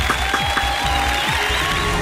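Steady, dense clapping from a crowd, applauding President Piñera of Chile, fills the two seconds at a constant, fairly loud level, with a faint sustained tone running underneath.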